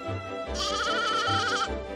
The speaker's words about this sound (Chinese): 小绵羊叫着，它呀，好像也在笑呢。